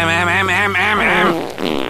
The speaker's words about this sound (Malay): Sorry, terkentut.